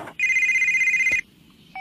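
A mobile phone left behind by its owner rings with a steady, bright electronic tone that holds for about a second, stops, then starts again briefly; no one speaks over it.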